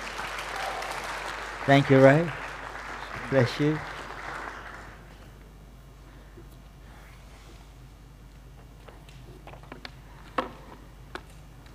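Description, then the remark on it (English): An audience at a church service applauds in a steady, dense patter for about five seconds as a visiting pastor comes forward to speak, a man speaking briefly over the clapping before it fades out into quiet noise with a few faint knocks. “So let's put our hands together as he comes forward this morning.”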